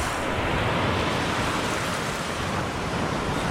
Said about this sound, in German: Wie es brandet, wogt und zischt, und der Wellen weißer Gischt dampfend in die Höhe geht und wie leichter Rauch verweht.